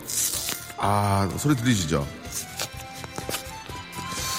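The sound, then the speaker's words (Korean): A man speaks briefly, then crisp, irregular crinkling and rustling of paper follows as the folded gold paper wrapper of a piece of yanggaeng is unfolded and peeled open. “자, 이 종이 금색 종이로 또 이게 접혀 있어가지고요.”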